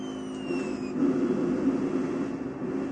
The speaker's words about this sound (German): Ein Auto.